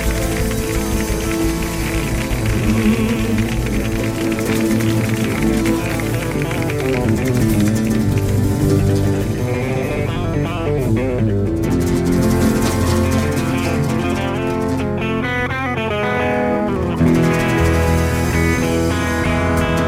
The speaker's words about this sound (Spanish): Apoyo, admiración y o cariño es el que va a recibir este artista galáctico con un aplauso del tamaño de un tsunami espacial.